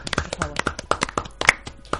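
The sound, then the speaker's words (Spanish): A brief, subdued round of applause: a handful of light, uneven hand claps, sparse and moderately soft, lasting about two seconds with no talking over them. “Un aplauso, pero cuidado, ¿eh? Contenido.”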